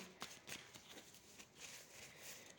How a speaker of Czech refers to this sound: tahám další karty.